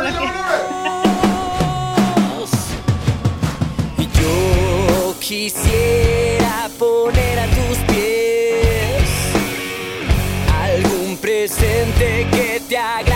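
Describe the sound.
A loud rock song with a male lead vocal over driving drums, distorted electric guitars and bass, the sung melody holding long notes above a steady, punchy beat.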